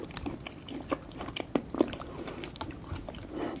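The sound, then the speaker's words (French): Close-miked ASMR eating of a large piece of salmon sashimi: soft wet chewing and squishy mouth sounds, with a few sharper smacks and clicks scattered through, no talking. “Alors ça, par exemple, c'était une experte ASMR en train de manger un énorme sashimi de saumon, et je plaisante pas.”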